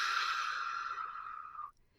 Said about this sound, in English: And just kind of hold that breath for a couple seconds. And then exhale slowly through your mouth for about four seconds. You don't have to count, just as slow as you can.